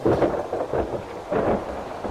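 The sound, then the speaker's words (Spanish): A thunderstorm with a steady rush of rain and low rolling thunder that swells and fades in waves, fairly loud, with no voices. “Las nubes de tormenta ya tomaban forma en el cielo.”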